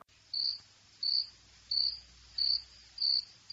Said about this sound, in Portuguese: E mereceu um grilo aí